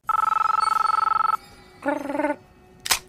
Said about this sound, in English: that click, that that phone, the Nokia eighty one ten.